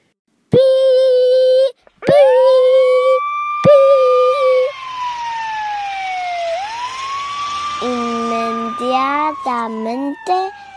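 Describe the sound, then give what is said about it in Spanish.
A fire truck siren wails loudly as the truck speeds out of the fire station, its pitch sweeping up and down, with short blaring horn blasts at the start and a choppy warbling burst near the end. “El camión de bomberos salió del cuartel a toda velocidad.”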